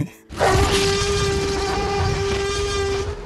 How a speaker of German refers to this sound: Hier hören wir ihn schon brüllen, den T-Rex.